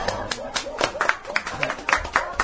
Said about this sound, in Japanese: はいありがとうございました拍手拍手お願いいたします